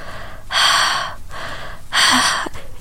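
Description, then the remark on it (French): A person imitates a video game character's heavy breathing with two long, loud, breathy exhalations about a second and a half apart, with no speech. “Et t'entends juste la respiration du personnage qui est comme.”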